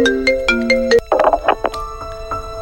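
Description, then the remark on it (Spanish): A telephone ringtone plays a bright, synthesized melody of quick, rhythmic notes, loud, with a brief busier burst in the middle and no voices. “Me llaman por teléfono.”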